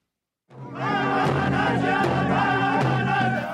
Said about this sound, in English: Drumbeats, cheers, and tears. The sound of victory for the Standing Rock Sioux and thousands of others gathered to stop the Dakota Access Pipeline.